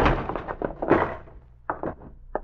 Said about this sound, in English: When I kick the door open, stand to one side and flash on the light. Now!